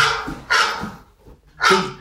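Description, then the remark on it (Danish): A phone ringtone of a barking dog: three loud, sharp barks, the last after a short pause, with no one talking over them. “Det lød som vorhund, det var bare en telefon.”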